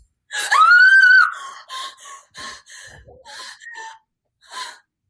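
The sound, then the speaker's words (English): A person lets out a staged horror-movie scream, a high, sustained shriek kept at moderate volume, followed by several short, breathy gasping cries with brief pauses between them. “Give us one of those good old hearty horror movie screams.”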